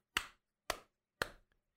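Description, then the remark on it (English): Three sharp, evenly spaced hand claps from one person high-fiving themselves, flat palm striking palm, each a bright, loud crack that quickly fades, with no talking. “Okay, so this is high fiving myself.”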